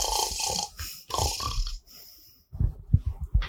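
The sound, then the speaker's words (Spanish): A voice imitates a yeti snoring loudly while napping in a small boat: a few long, rasping inhaled snores followed by a series of rhythmic, guttural snorts, exaggerated, with no other talking. “Y un botecito y de repente lo ven al Yeti durmiendo la siesta, acostado en el, botecito, roncando como loco.”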